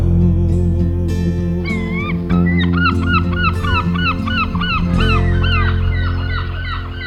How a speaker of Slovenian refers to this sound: Galebi se karaju.